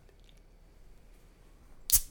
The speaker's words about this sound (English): cracking a beer. The Founders Unraveled IPA